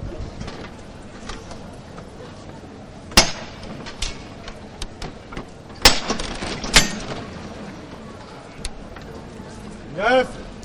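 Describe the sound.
A few sharp metallic knocks from the llamador knocker of a Holy Week (Semana Santa) procession float ring out at irregular moments, loud, over a steady murmur of crowd voices and street ambience, on the dark Calle Campanas.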